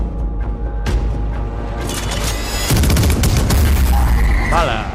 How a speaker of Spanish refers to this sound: una ensalada de tiros.